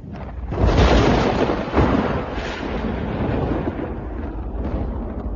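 A loud thunderclap bursts in with a heavy crack, then a second boom before a long rolling rumble slowly fades. No voices are heard.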